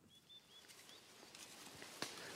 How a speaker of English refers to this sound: I'm still here in the forest. It's not silent at all. There's birdsong.